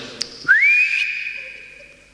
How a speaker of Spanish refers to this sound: Bueno, yo le voy a pegar un silbidito al sombrero y capaz que vuelve y se asoma